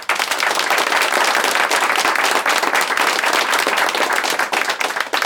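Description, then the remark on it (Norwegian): An audience at the live NRK P2 broadcast of Disse dager at Tøyen torg in Oslo claps steadily, a dense, loud wash of many hands applauding without pause for several seconds, with no voices over it. “Den som har opplevd identitetstyveri, vet at det ikke er noe å klappe for.”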